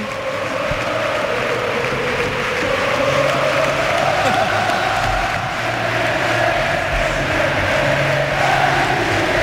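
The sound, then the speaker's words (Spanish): A large stadium crowd at the Pijuan roars and cheers continuously for the coach Mendy, a dense, loud wall of voices with chanting tones rising and swelling throughout, steady and sustained without pause. “Así suena el Pijuan.”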